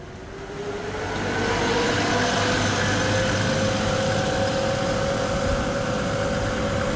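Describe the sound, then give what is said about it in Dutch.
A bus carrying 34 passengers idles in a steady rumble, with a low hum and a faint whine that creeps slightly upward, swelling in over the first second and then holding level. “En voor zover ik u nog niet welkom heb geheten, zeer hartelijk welkom in deze hele mooie bus.”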